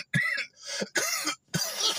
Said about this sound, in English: I'm coughing off this weed, by the way.